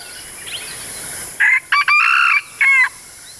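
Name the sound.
chickens clucking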